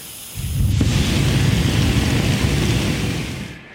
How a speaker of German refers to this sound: Den ersten Flammenstoß halte ich locker aus. Ich spreche meinen Feuerzauber und die Flammen prallen an mir ab.